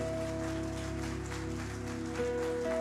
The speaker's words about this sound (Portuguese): Ah, vamos aplaudir direito